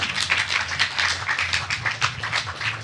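Applause from a crowd, a dense patter of many hands clapping at a steady, moderate loudness throughout, with no one speaking over it.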